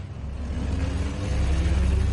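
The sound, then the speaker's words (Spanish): Guardia Civil cars pulling off after the officers put a man in the car, in the Basque Country in 1973: a steady low engine rumble with a throaty hum that swells slightly as they move off, with no voices. “Los guardias civiles meten al hombre en el coche y se marchan.”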